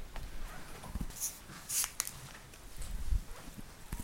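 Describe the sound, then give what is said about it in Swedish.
Someone opens a cold carbonated drink bottle: faint plastic clicks and scrapes as the cap is worked, then a brief sharp hiss of escaping gas, with a few soft handling knocks afterward. No talking. “Då ska vi öppna den och se hur den ser ut, eller vad som händer.”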